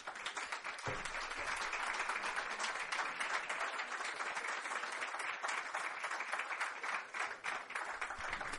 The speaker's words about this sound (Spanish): Por favor, un fuerte aplauso para ellos.